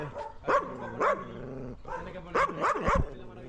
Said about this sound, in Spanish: Este patio de mi primo. Vale, vale. Tiene un perro ahí a tope.